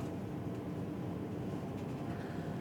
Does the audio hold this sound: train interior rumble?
yes